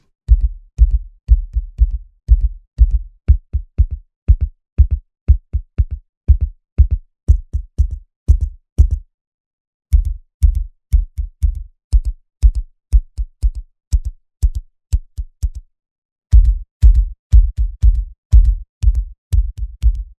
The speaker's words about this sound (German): Und dann gibt es pro Kategorie auch noch drei verschiedene Sounds, die du mit diesem Drehregler hier auswählen kannst. Wir gehen mal in die Bassdrum rein. Zuerst Wood, dann Metal, Mechanics und Body.